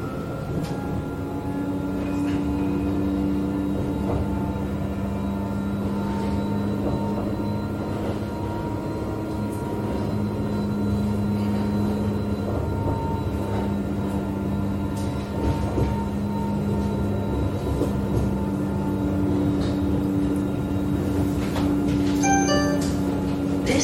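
Steady interior hum of a Sydney light rail tram in motion along a main city street, with a low droning motor tone, rumbling wheels and faint rattles and squeaks throughout, recorded from inside the car.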